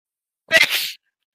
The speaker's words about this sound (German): Nur das beste, nur die beste Gesundheit der Welt für dich.